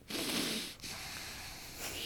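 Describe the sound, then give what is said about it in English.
A voice imitates heavy, noisy nasal breathing, two long rough breaths with a short gap between them, with a snorting, wheezy hiss and no words spoken. “The fun is just the the breathing”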